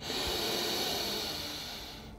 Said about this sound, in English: Deep inhale.